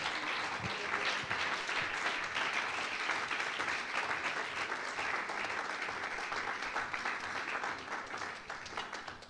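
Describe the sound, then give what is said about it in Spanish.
An audience applauds steadily for several seconds, a dense, continuous wash of many hands clapping that holds its level before easing slightly at the end. No one speaks over it. “Si le va a aplaudir, hágalo con el corazón porque es para Él.”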